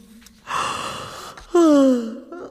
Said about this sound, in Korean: 아, 아, 근데 와 이렇게 하품이 나냐? 아.